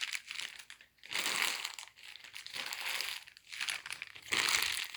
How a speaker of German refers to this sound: Hört ihr, wie der Schnee knirscht?